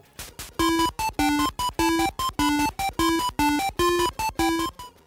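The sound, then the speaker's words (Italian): Isolated Mega Drive PSG channel music: buzzy square-wave tones in short, evenly spaced staccato bursts, a steady beeping pattern at moderate loudness with no voices. “Ora sentiremo la traccia soltanto del PSG.”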